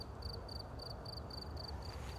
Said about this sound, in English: I don't know if you can hear. Listen to the crickets.